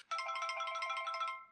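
A phone ringtone plays on its own for about a second and a half, a steady, bright electronic warble of rapidly repeating high tones at even volume, then cuts off.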